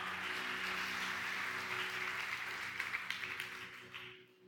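An audience applauds a band steadily in a dense wash of clapping that holds for several seconds, a few sharper individual claps standing out before it quickly dies away, with a low hum underneath.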